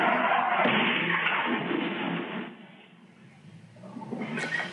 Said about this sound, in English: That horrific sound, the crash as it happened right outside